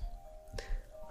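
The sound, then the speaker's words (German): A mobile phone rings with a piano ringtone: a faint sustained tone with one clear struck note midway, heard quietly with no one speaking. “Oh, hier ist so ein Klaviergeräusch.”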